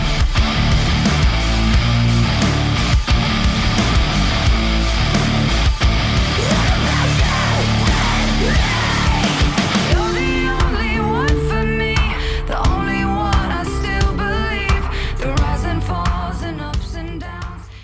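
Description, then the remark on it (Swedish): A loud, dense rock song by an American rock band from Orlando, Florida plays with heavy distorted guitars and drums, joined by harsh screamed vocals; the band drops into a sparser, punchier section about midway through. “det är ett amerikanskt rockband från Orlando, Florida. Och de släppte ju skivan … den 14 oktober.”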